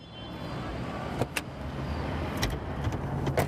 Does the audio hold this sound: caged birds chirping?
no